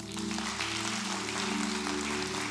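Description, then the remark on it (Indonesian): A church audience claps steadily for a couple of seconds in agreement with a sermon, a dense, even patter of many hands at moderate loudness, with a low steady hum underneath. “Yang setuju berikan tepuk tangan dulu yuk.”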